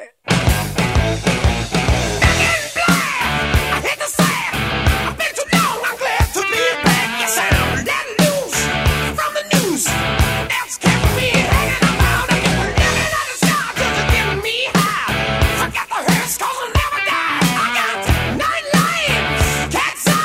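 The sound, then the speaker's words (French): A loud, driving rock track plays from a 2003 vinyl record pressing, with punchy drums hitting on a steady beat under distorted guitars and a raw vocal line, dense and full from start to finish. “le titre éponyme, hein, le titre …. Donc on s'en écoute un extrait.”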